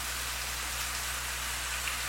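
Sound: storm rain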